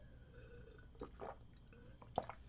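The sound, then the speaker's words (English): Someone quietly drinking water: a few soft, wet sips and swallows, then a brief sharp click near the end, with no talking. “I'm gonna I'm gonna I'm gonna drink some water before I talk about this one because I have some words to say.”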